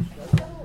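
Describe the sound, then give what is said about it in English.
A loose table top that is not screwed in completely gives a single dull knock, a short, low thump with a faint rattle, against quiet background noise. “It's like a weird, like clinky noise. It's the table okay. top. It's not screwed in completely.”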